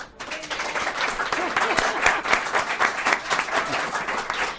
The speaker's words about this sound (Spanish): Bien, yo le voy a pedir a los oyentes aquí con nosotros en el corte inglés de Princesa, antes de despedir, que quedan dos o tres minutos, que den un aplauso a Adrián y al doctor para que se note que están.